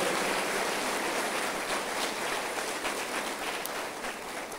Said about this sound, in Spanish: Denle otro aplauso al Señor. Gloria a Dios.